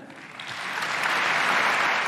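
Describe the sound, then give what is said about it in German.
Loud, sustained applause from a large crowd in a parliament chamber greeting acting Chancellor Angela Merkel in the guest gallery, many hands clapping at once in a dense wash that swells slightly and holds steady, with no voices standing out. “ähm, die ehemalige, dann noch amtierende für wenige Minuten Kanzlerin Angela Merkel auf der Gästetribüne begrüßte, großer Applaus.”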